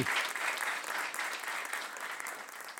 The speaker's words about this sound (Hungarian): úgyhogy nagy taps jár a srácoknak.